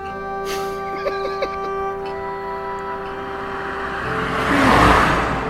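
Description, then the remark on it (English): A grey, fairly long car's steady engine hum builds into a broad whooshing roar as it drives past on the road, swelling loudest near the end. No one speaks. “That was grey. Quite a long car, you know.”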